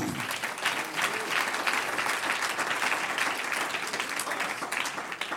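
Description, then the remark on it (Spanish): An audience applauds together for the Lord, a dense, steady wash of many hands clapping at fairly even loudness for about five seconds, with no clear voices standing out. “Un aplauso al Señor.”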